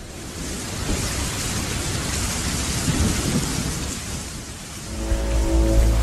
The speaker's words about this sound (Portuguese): E a chuva não para, chovendo intensamente.